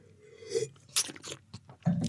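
Wet mouth sounds of someone tasting wine: a series of short slurps and sucking noises as air is drawn in over the wine in the mouth, with brief crackly bursts, no talking.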